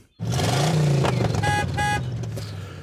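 A man gets into his car; the engine roars to life and revs up, with two short horn toots in the middle, then the motor hum eases slightly as the car pulls away.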